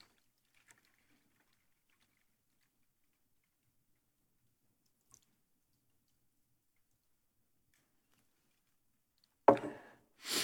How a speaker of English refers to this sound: the overflow of wine. Uh, the priest will take the wine and he will pour it like this.